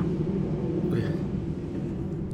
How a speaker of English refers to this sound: Oh, it was a, it was a trail of motorcycles, you know. Oh, one of those motor, motorcycler gang. A little motorcycle Dr- parade. Driving through downtown.